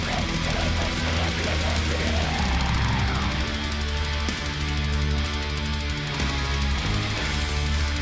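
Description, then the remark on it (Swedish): An extreme metal song plays loud and dense throughout, with thick distorted guitars, heavy low-end riffing and a harsh, saturated wall of sound that never lets up. “Men det här är inte death metal.”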